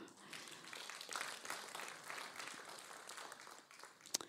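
Steady audience applause, a dense wash of many hands clapping at even loudness for a few seconds, with one sharper, louder clap near the end.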